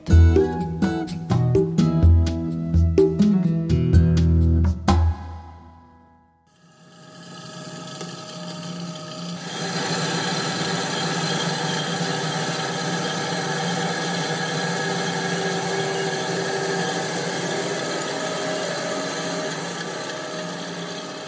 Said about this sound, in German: was man hier gerade gehört haben, war eine Raufmaschine. Flachs wird nicht geschnitten, sondern mit der ganzen Wurzel aus dem Boden gerissen. Der Flachs wird gerauft.